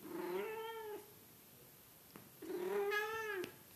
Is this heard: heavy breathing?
no